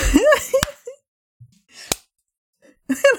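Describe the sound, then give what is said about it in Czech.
Two sharp, single hand claps land about a second apart, each a crisp, loud smack. Voices talk and laugh around them, with a quiet gap between the claps. “Proč jsem tleskal, když ty si tleskl?”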